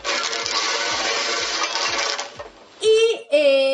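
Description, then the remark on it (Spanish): Lottery balls clatter continuously inside a spinning cage, with a steady rhythmic thump on each turn, fairly loud, then the rattling stops and two short squeaky tonal sounds follow. “Bolillero. Ruido.”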